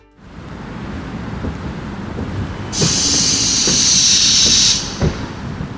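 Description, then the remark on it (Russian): A tram car returning from its route, one working one of three standard routes, rumbles slowly along the rails into the tram depot on Jatniku Street in Daugavpils, with low clanks and thumps, and a loud hiss of air bursts out midway for about two seconds before the rolling resumes. “Сейчас вы слышите, как вагон с рейса заезжает в трамвайное депо на улице Ятнику в Даугавпилсе.”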